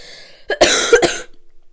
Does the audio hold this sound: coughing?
yes